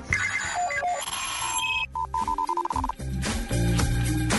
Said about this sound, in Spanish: Eh, eh, en el celular pongo ahí el despertador para una hora y después pongo eh, 20 minutos después.